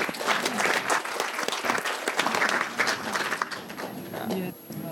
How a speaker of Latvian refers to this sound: Paldies! Paldies! Aplausos!